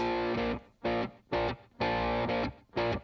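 A country pop song plays, opening with loud, crunchy distorted guitar chords struck in a punchy, stop-start rhythm, about five sustained stabs with brief gaps between them and no singing.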